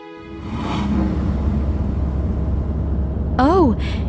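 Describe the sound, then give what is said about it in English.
A steady low engine rumble holds throughout as a car approaches along a road, ending with a brief rising-and-falling horn-like tone near the close. “Suddenly, he saw a car approaching him.”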